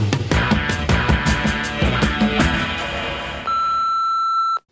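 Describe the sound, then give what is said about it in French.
A short busy musical jingle plays, then cuts to a single steady, loud answering machine beep lasting about a second before it stops abruptly. “que nous réserve le répondeur”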